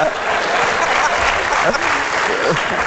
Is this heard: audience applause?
yes